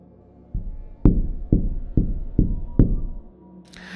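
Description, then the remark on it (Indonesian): Knuckles rap on the glass of a car door window, about six sharp knocks in a steady, unhurried rhythm, fairly loud. No voices, with a brief brighter rustle right after the last knock. “Gak lama, dia kaget ketika ada suara ketukan tangan seseorang yang mengetuk kaca pintu mobilnya.”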